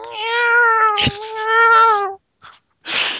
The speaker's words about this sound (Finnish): kissan pennut. Voi, pikku tille, tille.